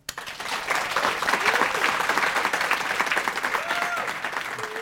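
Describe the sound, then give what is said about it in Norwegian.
A crowd applauds an author who is about to sign and sell her book, steadily, a dense wash of many hands clapping that starts abruptly and holds at a fairly loud level throughout, with a few faint whistles or cheers rising over it. “Men nå en stor applaus til damen som snart er eh, der borte og signerer og selger eh, boka si,”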